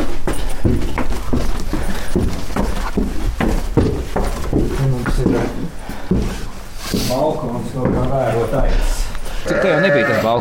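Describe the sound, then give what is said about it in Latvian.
Ewes, 50 in all, bleat in a winter barn housed in a former collective-farm club building, their wavering cries overlapping and growing louder toward the end, with a steady murmur of voices and shuffling beneath. “Šo ziemkūtī ir 50 aitu mammas, un uz tām skatāmies no balkona.”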